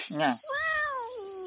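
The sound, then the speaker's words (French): A cat meows twice: a short chirpy call, then a longer drawn-out meow that slowly falls in pitch, fairly loud against a quiet background. “Vous entendez, vous aussi ça serait pas double clic par hasard”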